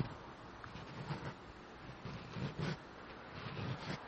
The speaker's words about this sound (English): Watch, hold on. I'm going to scratch my microphone cuz it it'll be soothing.